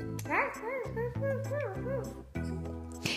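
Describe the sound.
A voice imitates a dog barking to be let out, giving a quick series of short, rising-and-falling yaps over steady background music, fairly loud.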